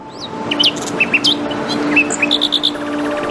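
Several birds sing outdoors in natural surroundings in Almadén, with clear whistled chirps and trills overlapping, including a quick run of four bright notes, over a steady hiss of open-air ambience.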